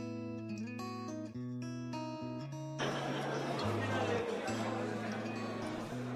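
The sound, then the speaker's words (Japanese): A few seconds of tuneful background music, then the steady hubbub of a busy crowd in a cheap izakaya pub swells in, many voices chattering at once while the music carries on underneath. “乾杯まあ安居酒屋だが味は抜群だ”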